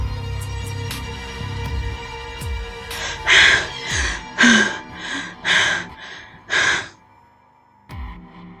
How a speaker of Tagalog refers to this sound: Hinihingal at kinakapos sa hininga.